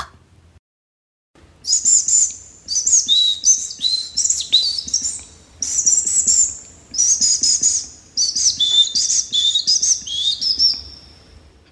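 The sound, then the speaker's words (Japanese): A person whistles an imitation of a Japanese tit's courtship call: bright, high chirping phrases repeated in quick bursts with short pauses, clear, and nobody speaking. “続いては、四十からの求愛です。”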